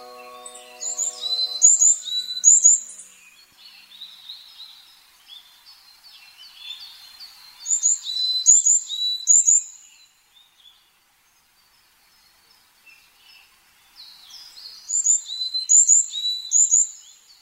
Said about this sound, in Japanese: 登山道を登り始めるといつの間にか野鳥たちの鳴き声に包まれます山柄のさえずりです